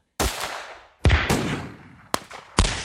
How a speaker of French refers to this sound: Des coups de feu m'extirpent de notre conversation.